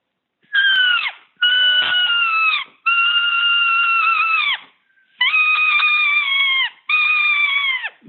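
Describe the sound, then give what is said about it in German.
An imitated distressed roe deer fawn call: five loud, drawn-out, wailing bleats in close succession, each about a second long with short gaps, with no talking. “Man muss so einen richtig jammernden Kitzfieb machen”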